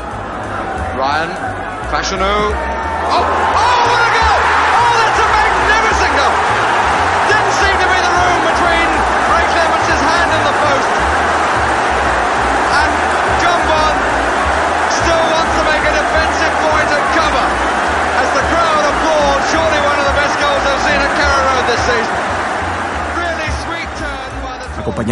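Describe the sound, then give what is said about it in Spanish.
Football fans of the barras bravas shouting and chanting together, a dense, steady roar of many voices that swells up in the first few seconds and then holds loud and unbroken throughout. “Justin Fallano es un ejemplo que deberíamos mirar y después contrastar con, por ejemplo, los gritos y cánticos de la barras Brava.”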